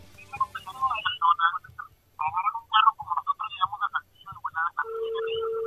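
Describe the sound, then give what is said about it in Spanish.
Garbled, distorted voices crackle over a telephone line that has a delay and interference, then a steady ringing tone starts near the end and holds, thin and moderately loud like a call connecting. “Ahí está sonando apenas.”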